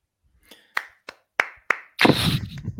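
A few separate, sharp claps ring out at uneven intervals, then break into a brief burst of denser clapping from two people, fairly loud with no talking.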